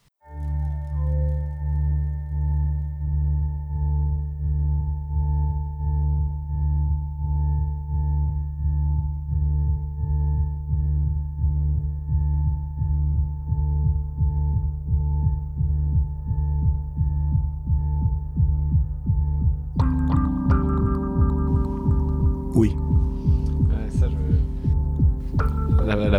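A dark, sustained synth pad drones low with steady pulsing throbs, then around twenty seconds brighter tonal layers and crisp rhythmic ticks join in, thickening the texture. No voices.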